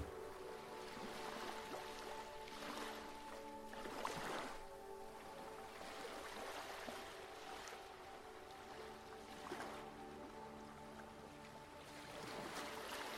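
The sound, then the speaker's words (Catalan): Gentle sea waves wash in and recede in slow, repeated surges every few seconds, softly rising and falling over a steady, sustained musical drone with no one speaking. “Segueixes aquí, davant del mar, asseguda o assegut, rebent la carícia de cada onada, anant i venint.”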